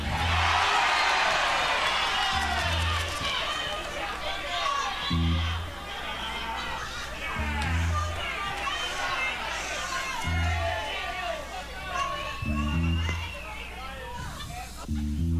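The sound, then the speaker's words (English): A large crowd at a rock and roll concert cheers and shouts continuously in a dense, loud roar of voices, with deep thumps recurring every couple of seconds beneath the noise. “Now, is that any way to behave at a rock and roll concert?”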